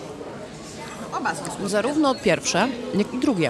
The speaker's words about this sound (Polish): Poza tym, jak słyszycie, jest też gwarno bardzo, dzieci płaczą, ludzie się posilają, bo to jest pora lunchu. Dzieci nie płaczą, dzieci się śmieją radośnie.